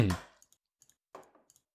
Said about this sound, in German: Jetzt höre ich irgendwie nur klicken. Das ist gut. Ich habe die, ganze, hab die ganze Zeit auf den Mute-Button geklickt, an und aus.